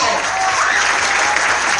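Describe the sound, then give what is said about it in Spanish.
Loud, dense audience applause at an awards festival for the best female performance award, a steady wash of many hands clapping without pause for the whole stretch, with a faint murmur of voices underneath. “Fuerte el aplauso.”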